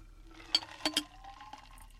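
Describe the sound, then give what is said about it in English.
A gin sour cocktail is strained and poured into a glass, with a few sharp clinks of ice against the rim over a soft, quiet trickle of liquid, without talking. “And then you strain it into the glass.”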